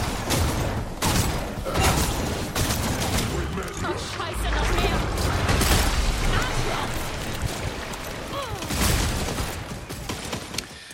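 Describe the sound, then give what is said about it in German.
Gunfire in the video game Redfall crackles in rapid, uneven volleys throughout, loud sharp bursts layered over deep booming impacts and a continuous rumbling, noisy background of combat. “Das fängt auch schon beim Ballern an.”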